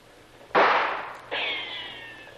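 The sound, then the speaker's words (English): Two gunshots in a radio drama, fired by guards at men behind a rock by a beach, about three-quarters of a second apart, each a sharp, loud crack with a decaying tail; the second carries a lingering, high-pitched ringing whine like a ricochet. No voices. “Boy, they're not bad shots. Almost feel the breeze from that one.”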